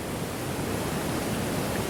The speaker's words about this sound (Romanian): Avem pentru voi uh, o cascadă.